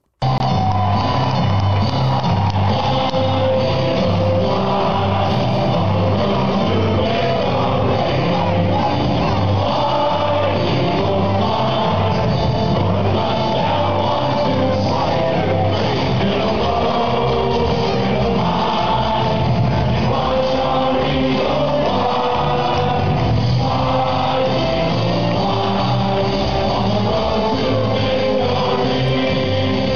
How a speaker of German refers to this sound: Und ähm, wir stimmen euch jetzt einfach mal ein, wie es im Stadion ist, denn ähm, ich habe nur das Handy hochgehalten und das klang so.